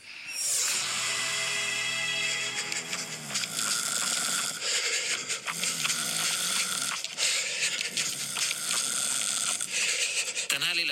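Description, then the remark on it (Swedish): Loud snoring blended with heavy, rhythmic panting breaths, continuous and dense for about eleven seconds with no talking. “snarkoflåsmixen får illustrera alla frågor som handlar om träning och sömn kopplat till immunförsvaret.”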